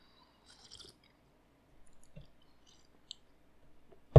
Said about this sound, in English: I'm going to take some coffee here.